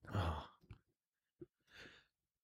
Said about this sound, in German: Ich muss dann doch vorher gähnen.